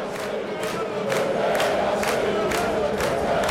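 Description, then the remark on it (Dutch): A dense crowd of fanatical football fans in section G behind the goal at the NAC stadium in Breda, Netherlands, on a Friday evening roars and chants continuously, with rhythmic bursts of clapping or stomping roughly every half second over a steady, loud wall of voices. “We staan in vak G achter het doel tussen de fanatieke fans. Niemand zit ook maar een seconde stil.”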